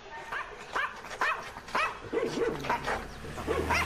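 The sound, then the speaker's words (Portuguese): A small dog named Bidu barks repeatedly in quick, high-pitched yaps, about seven at a steady pace, clear with no talking, while running behind a boy riding a bicycle. “Está olhando para o seu cachorrinho, que vem correndo logo atrás dele.”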